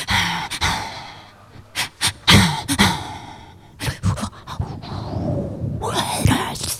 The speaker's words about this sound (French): Mais euh, c'est des choses, on peut faire des choses rythmiquement avec la respiration.